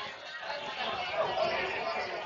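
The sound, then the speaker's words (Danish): A steady murmur of many people talking at once fills the space nearby, an indistinct babble of voices with no single speaker standing out, holding at a moderate level throughout. “Og det du kan høre, det er, at der stadigvæk er lyd fra de her mennesker omkring mig”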